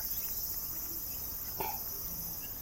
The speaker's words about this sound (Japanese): 聞こえるかなセミがね、鳴いてるんですよ。ちょっとだけね、家から離れたとこの今、公園に来てるんですけど